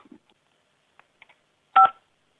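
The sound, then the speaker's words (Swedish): A single loud telephone keypad tone sounds near the end as an option is chosen in the automated phone menu of SIK Sverige, a short steady dual-pitched beep, preceded by a few faint, brief clicks in otherwise quiet surroundings. “Gör ditt val med knapparna på din telefon.”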